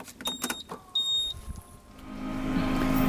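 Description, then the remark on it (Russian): A few short electronic beeps, then a motorbike engine starts up and its hum rises steadily in pitch and loudness as the rider pulls away from home. “Поэтому я сажусь опять на байк и опять выезжаю из дома.”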